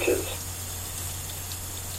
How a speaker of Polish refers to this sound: W tym momencie pomalutku odkręcam nasz kran.